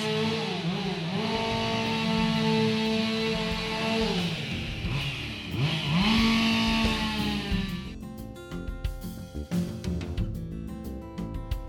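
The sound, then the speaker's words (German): A chainsaw engine drones loudly and revs up and down in pitch in a remote spot in the middle of nowhere, then bites into wood for the last few seconds with a rougher, sputtering, uneven sound. “denn äh, ja, sowas in der direkten Nachbarschaft den ganzen Tag zu hören, ist wahrscheinlich nicht so nachbarschaftsfreundlich.”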